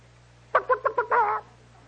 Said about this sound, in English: Don't tell me, none of you guys are going to come and tell me that there's a chicken in them weeds.